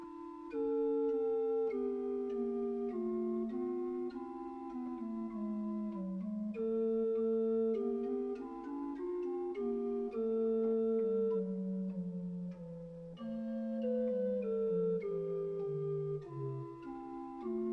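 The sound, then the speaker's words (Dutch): A slow melody harmonized in a gloomier way with dark, tense chords full of close, clashing intervals, notably semitones, sustained notes shifting steadily for about eighteen seconds, played alone at an even, moderate loudness with no talking. “Stel je voor dat ik de melodie wat somberder wil kleuren.”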